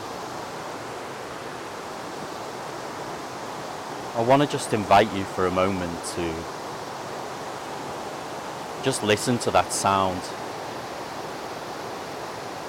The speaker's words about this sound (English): The river just underneath me is gushing quite wildly.